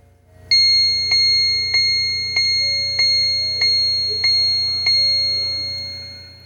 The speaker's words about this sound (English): Most of you are familiar with the time and temperature clock. And that's an English clock that sits on my headboard. Let me see if it's 8 o'clock yet. 8 Yep, it is. Let me just touch it quickly. The Autochron, 8 o'clock.